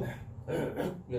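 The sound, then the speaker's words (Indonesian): A person imitates a dog barking, giving a few short, rough, voiced woofs in quick succession, moderately loud. “ada ini ada suara anjing gonggong itu”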